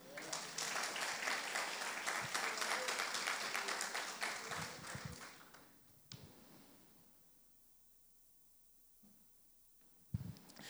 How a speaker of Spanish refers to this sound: Un aplauso al Señor.